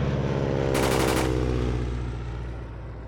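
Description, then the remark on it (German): A video-game aircraft attack on a submarine: a loud, rapid burst of machine-gun fire lasting about half a second over a steady, low droning engine that carries on and slowly fades. No one speaks. “Flugzeugangriff.”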